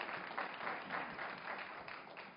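A crowd claps steadily for a couple of seconds, a dense, even patter of many hands at moderate volume with no voices over it.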